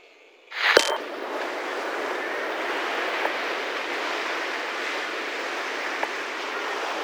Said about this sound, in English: Through his frequency, I heard what I knew was a beach the waves coming and going, the breeze deafening a microphone, classic reggaeton in the distance.